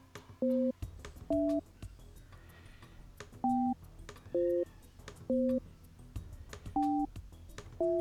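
A telephone call being placed to a racer in the Super Hooligan Series, with a series of short, evenly spaced electronic phone tones beeping at slightly different pitches, with faint background hum and no talking.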